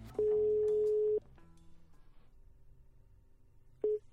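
A telephone ringing tone on an outgoing call to a journalist at the Danish newspaper Fyns Stiftstidende: one long steady tone lasting about a second, then quiet line noise, and the start of a second tone near the end.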